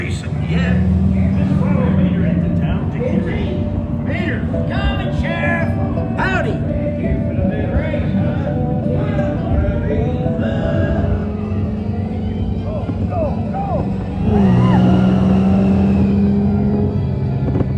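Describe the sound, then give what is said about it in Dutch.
A ride car of the Radiator Springs Racers car attraction in Cars Land hums and rumbles steadily along, its motor droning with a louder surge near the end, while crowd voices chatter in the background. “En je zit dus echt in een auto en die rijdt en die race.”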